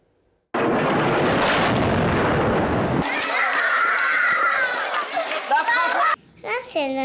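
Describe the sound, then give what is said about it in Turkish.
A loud bomb explosion in Idlib, Syria bursts in suddenly, a broad rumbling roar that lingers for a couple of seconds before fading into high, excited vocalizations of a little Syrian girl. “Suriyeli küçük kızın İdlib'te bomba sesine verdiği vicdanları sızlatan o tepki.”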